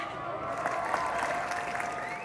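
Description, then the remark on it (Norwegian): Steady applause from a large outdoor concert crowd at Youngstorget in Oslo during the Øya Festival club day, a dense continuous patter of many hands clapping at an even level, with faint crowd murmur and a high tonal hum running underneath. “høster applaus fra publikum på Youngstorget i Oslo under Øyafestivalens klubbdag, dagen før festivalen starter for alvor i Tøyenparken.”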